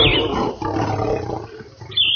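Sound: lion roaring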